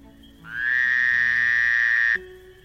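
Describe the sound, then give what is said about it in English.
A green frog gives one long, high, steady croaking call that slides slightly upward at the start, holds for nearly two seconds, then cuts off abruptly. No one speaks. “这是什么声音？绿色的小青蛙在叫。”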